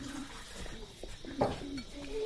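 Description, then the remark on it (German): A woman pours drinking water into glasses for mourners, with a soft splashing trickle, a light clink of glassware and faint voices talking quietly in the background. “Die Tante des Verstorbenen gießt den Trauernden Trinkwasser in Gläser.”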